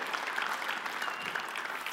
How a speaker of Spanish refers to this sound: Si usted lo cree, levante el otro fuerte aplauso al Señor, un amén, levanta su mano.